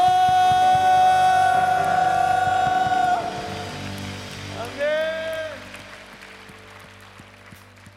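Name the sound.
audience applause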